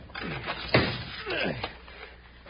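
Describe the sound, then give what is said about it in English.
A big, heavy door, said to weigh half a ton, swings with a groaning creak and then shuts with a single loud, booming slam, followed by a low rumbling scrape as it settles. “Close that big door and lock it tight.”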